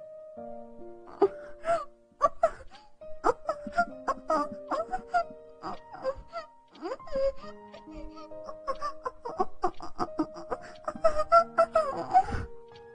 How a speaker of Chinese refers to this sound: 熟悉的快感流窜全身，让他发出娇媚的喘息。